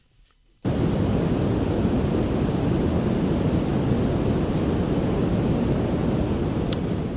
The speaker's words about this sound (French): Voilà, ça c'est un bruit blanc.